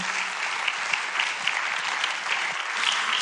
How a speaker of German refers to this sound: So, einen großen Applaus einmal.